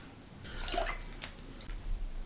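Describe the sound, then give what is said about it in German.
A short, quiet pour of water into a glass, a splashy trickle lasting about a second before fading into a faint background hum, with no one speaking. “Achso, vielleicht gießt man noch erstmal noch ein bisschen Wasser rein.”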